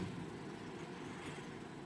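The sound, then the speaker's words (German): A low, rattling snore drags on steadily for a couple of seconds, quiet, with no other sounds around it. “Man hört ein Schnarchen.”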